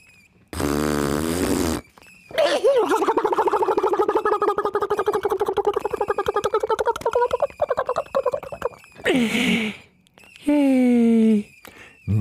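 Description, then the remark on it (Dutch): A voice imitates farting with the mouth: a buzzy blast, then a long wet sputtering raspberry of several seconds, followed by two more short fart-like bursts, loud. “Het kost jou meer moeite om te lachen dan mij om een windgeluidje te maken.”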